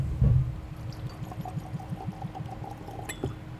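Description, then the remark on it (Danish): Clear new make spirit, a neutral alcohol two days old and the starting point of whisky, glugs and trickles as it is poured into glasses for tasting: a steady pour with rhythmic bubbling pulses and a light clink near the end. “Og nu hælder vi lige op.”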